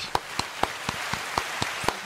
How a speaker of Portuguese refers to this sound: Vamos né, apresentar nossa né? convidada, né? Nossa convidada que pô, acabou de ser promovida. Uhul. Uma salva de palmas.